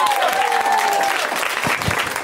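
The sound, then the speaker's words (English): Steady audience applause for a comedian's new material, a dense wash of clapping that holds at an even, fairly loud level for a couple of seconds, with a faint tonal whine fading out early on. “You know, uh, give it up for all that hot, brand new shit I threw at you.”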